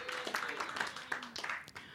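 A brief round of applause from a group, many hands clapping in a dense, steady patter for a couple of seconds, with a faint voice murmuring underneath.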